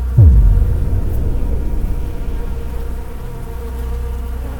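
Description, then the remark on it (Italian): A steady, low droning buzz hums on without pause, like a swarm of insects, beginning with a brief swooping tone and then holding an even, throbbing intensity. “Le ultime sue parole vi risuonano nella testa, insieme a un, un ronzio costante, ed ad un certo punto chiudete tutti gli occhi.”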